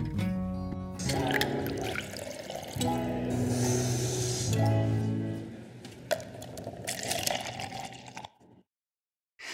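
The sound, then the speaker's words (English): Coffee pours steadily into a cup in several short bursts, the tone rising slightly as it fills, fairly loud, ending in a brief silence. “So stick around, pour yourself a cup of coffee, put your feet up, and take a little coffee break with me.”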